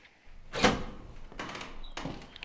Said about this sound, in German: Und klick öffnet sich das Schloss. So. Falls ich jetzt einen kleinen Moment etwas ruhiger bin, wir müssen jetzt mal eben hier die Lage sondieren, sobald ich die Tür aufmache Wer weiß, was uns da drin erwartet.